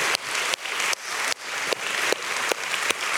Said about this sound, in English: Hey, good morning, Westover. Can we do something right off the bat? Can we give Jesus Christ a hand clap of praise on this, his Lord's Day? Absolutely.